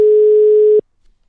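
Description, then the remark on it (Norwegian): A single steady, mid-pitched telephone ringing tone from an outgoing call to an agent sounds loudly for just under a second, then cuts off into silence. “Vi prøver å ringe han.”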